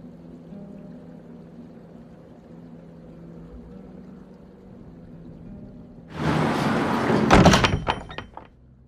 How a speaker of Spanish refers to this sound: La pesada puerta de doble batiente, cuya altura casi duplicaba la de un hombre, tardó en abrirse. Las herrumbrosas bisagras rechinaron agónicamente